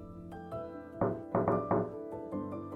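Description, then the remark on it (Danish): Several solid knocks on a door by an engineer land in uneven clusters, moderately loud, over a steady tonal background hum. “En ingeniør bankede på råden og trådte ind i de sænkede lokaler.”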